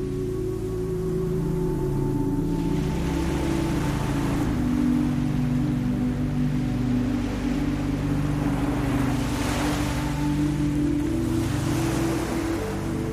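nature, ocean waves washing ashore

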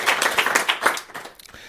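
crowd, audience clapping

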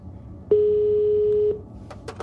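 signal or alarm, telephone ringing

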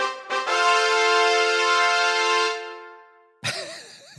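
sound effect, fanfare sound effect

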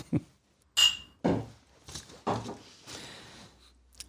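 household object, glasses clinking

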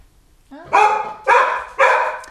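animal, dog barking

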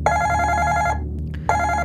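sound effect, ringing bell

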